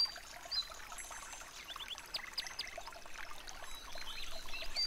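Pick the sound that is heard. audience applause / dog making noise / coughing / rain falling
rain falling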